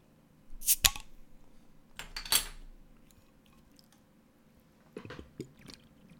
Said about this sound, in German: euch alle mal den Sound von, wir machen ein bisschen ASMR. Ähm, ich gönne euch den Sound vom Aufmachen und wie ich das schön den ersten Schluck, wie ich mir den gönne. Jetzt pass auf. Zuhören.